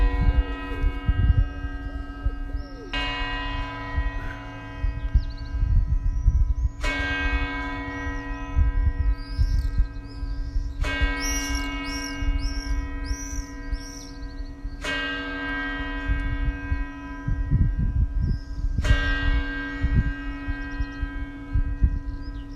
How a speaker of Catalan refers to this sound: Impagable, eh? Impagable, eh? perquè a part del soroll greu de la silvestre se sent inclús la vibració de la campana que inclús recomano a la gent quan pugin a la Sevilla que s'atancin a dalt a sentir-la de prop i encara vibraran més